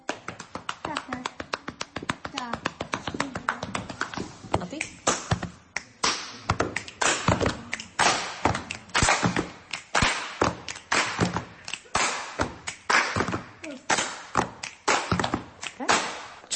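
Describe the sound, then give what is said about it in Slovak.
Sharp rhythmic slaps ring out in quick patterns, fairly loud, from dancers slapping their legs with their hands (čapáše) as rhythm in a folk dance, building into dense bursts with brief pauses between. “A tie čapáše, čo to je? To je, že buchanie po nohách, že ako rytmika proste.”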